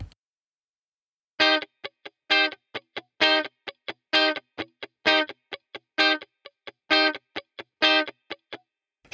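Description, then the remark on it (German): A distorted electric guitar repeats a steady practice pattern: a ringing chord strummed only on beat one of each bar, followed by quick, choked muted-string scratches on the other beats before the next chord. No voices; the loop continues evenly for several bars. “Im nächsten Schritt möchten wir nun jetzt den Akkord nur auf der 1 hören, auf der 1.”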